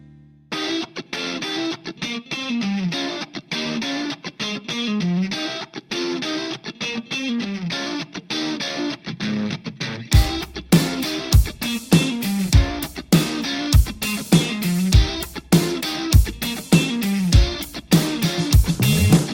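A funk track plays loudly with no talking: a muffled, thin-sounding intro for about ten seconds, then the full band bursts in with a punchy, steady beat and strong bass hits.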